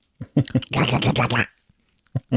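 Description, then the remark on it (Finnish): A person imitates Donald Duck's (Aku Ankka) voice in a raspy, buzzing, garbled squawk lasting under a second, preceded by a few short vocal sounds, with brief sounds afterward. “Mutta se akuankka.”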